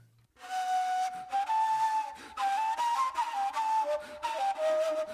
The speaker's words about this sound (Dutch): Weet je wel, die neefloed die ik noemde, die laat ik dan inspelen.